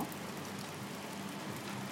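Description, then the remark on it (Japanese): Steady rain falls outdoors on Saturday, October 10, 2020, on a day growing colder, a constant soft hiss with faint patter, moderately quiet and even in level, with no voices or other distinct sounds standing out. “まあ今日雨なんですけれども”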